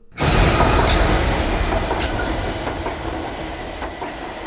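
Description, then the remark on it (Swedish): A train approaches along the rails, a loud, dense, steady roar with faint rhythmic clacks of wheels, starting abruptly and staying powerful throughout. “Så jag lägger mig där och min kompis är på andra sidan spåret och jag ser inte var han tar vägen och tåget kommer.”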